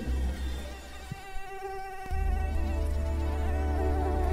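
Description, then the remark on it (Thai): A mosquito's thin, whining buzz drones steadily without pause, growing louder partway through and holding there, with no voices. “และนั่นจึงเป็นเหตุผลที่มนุษย์ต้องตบยุงทุกที ที่รู้สึกว่าโดนยุงกัดนั่นเอง”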